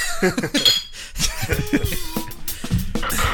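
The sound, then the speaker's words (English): A few bright glass clinks, like drink glasses touched together in a toast, ring out amid chuckling and scattered voices. “We, we got clinks. Clink that.”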